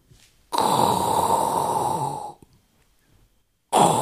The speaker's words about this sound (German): Jetzt, jetzt schnarchst du.